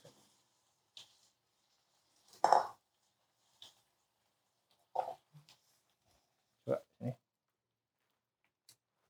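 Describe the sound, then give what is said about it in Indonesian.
A spoon clinks and clatters against dishes in a handful of separate, irregular knocks, moderately loud, with quiet gaps between each sharp contact. “Kita ambil sendok aja.”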